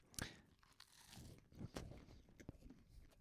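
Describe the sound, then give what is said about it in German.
Crisp crunching as two people eat flaky pastry at the same time, with a sharp bite near the start followed by irregular crackly chewing sounds and soft mouth noises. “Super Idee, dass das beide gleichzeitig essen.”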